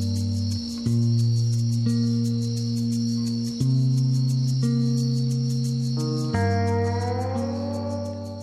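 Slow instrumental music playing as background under a WCBN radio announcer, with warm, sustained guitar-like tones that shift chords every second or so, a rapid cricket-like chirping pulsing steadily on top, no voices.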